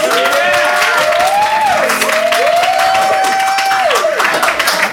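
An audience applauds steadily throughout, a dense, loud wash of clapping with sustained whistles or cheering tones gliding up and down above it.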